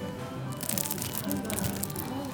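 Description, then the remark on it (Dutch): Crisp, crackly crunching as a hard croissant is broken apart, a dense burst of brittle crackles lasting a couple of seconds. “Die rat wordt helemaal blij als hij dan het geluid hoort van krakende croissantjes.”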